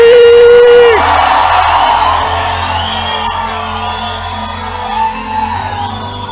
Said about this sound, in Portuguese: Dá um grito de júbilo aqui.